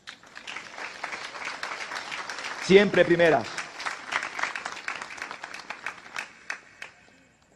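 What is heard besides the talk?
audience applause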